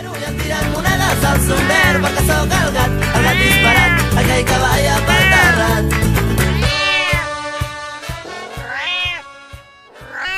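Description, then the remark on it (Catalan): A pair of European wildcats filmed at a zoo yowl and caterwaul in long, wavering, rising-and-falling cries, loud, over a heavy low rumble that drops away near the end, leaving the calls clearer. “ens va ensenyar una càmera de fototrampeig de veritat i ens va ensenyar les filmacions que tenien al zoo d'una parella de gats fer.”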